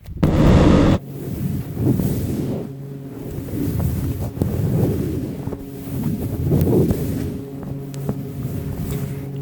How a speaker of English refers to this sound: It's so squeaky. this bed is so old It's squeaky, dude. Holy crap. You hear that?